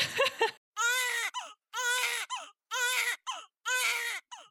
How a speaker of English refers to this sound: All right, the sound of that baby crying means it's time for this week's segment of Birth It Up Babies.